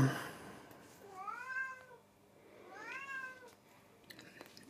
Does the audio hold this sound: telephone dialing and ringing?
no